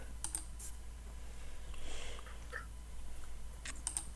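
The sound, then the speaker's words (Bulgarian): A few soft, quick computer keyboard taps cluster near the start and again near the end, as someone looks up whether a book is among a publisher's top 10 bestsellers, with a quiet steady background hum between them and no one talking. “нещо сега май си я поръчваш вече тази книга.”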